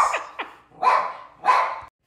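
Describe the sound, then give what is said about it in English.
Dogs bark in a quick series: two short yips followed by two louder, fuller barks, with no voices over them. “Emphasis brought to you by the dogs.”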